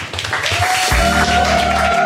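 Audience applause welcoming the next guest and a surprise guest onto the stage, a dense, steady wash of many hands clapping, joined partway through by a sustained low tone and hum underneath, with no one speaking.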